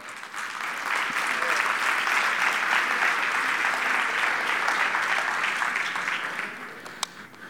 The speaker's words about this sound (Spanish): ¿Cuántos pueden darle un aplauso al Señor por eso?